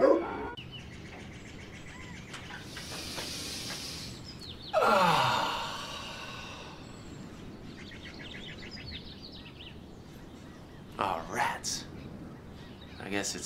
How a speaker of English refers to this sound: Dogs, they're coming. They're coming your way. They'll be here soon.